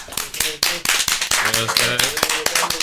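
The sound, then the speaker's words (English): Steady, rhythmic hand clapping: sharp, crisp claps about every quarter second, with excited voices calling out and cheering underneath throughout. “get a ah. clap one more time for”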